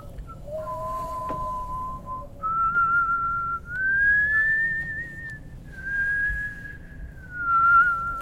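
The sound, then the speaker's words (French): A recording slowed down so that the speech on it can be understood plays as long, drawn-out whistling tones, several sustained notes gliding slowly up and down in pitch over a steady low rumble, with no talking. “Et ça donne quoi Et eh bah ben, du coup ça ralentit et là on comprend ce qu'il nous dit.”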